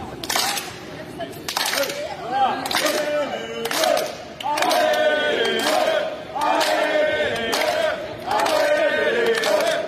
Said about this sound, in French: J'entends des gens chanter Allez les oui, Alors tu sais, ça c'est un clapping avec des gens qui chantent Allez les Bleus. J'adore, je suis en de clapping.